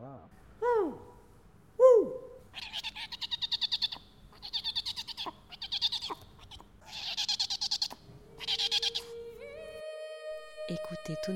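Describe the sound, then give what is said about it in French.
Owl calls ring out: two swooping hoots, then a series of quick, quavering trills repeated in bursts, before a steady held tone closes it out. “il y a eu des moments absolument magiques euh, avec, je me souviens, avec euh, Frédéric Pierrot qui, regardait le, hibou et le hibou qui le regardait.”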